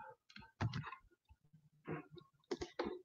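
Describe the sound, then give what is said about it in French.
Several quick bursts of computer keyboard and mouse clicks as someone copies and pastes with Ctrl+V, arriving in small irregular clusters, fairly quiet, with brief pauses in between and no talking. “Qui est ici, je vais faire copier ici, copier. Donc, et voilà, CTRL V ici.”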